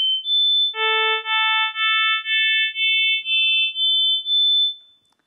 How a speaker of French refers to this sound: puis les sons harmoniques, avec au fur et à mesure perte des harmoniques les plus basses. Dès le deuxième son, perte de la fréquence fondamentale, puis ici, perte de la deuxième harmonique, perte de la troisième, etc.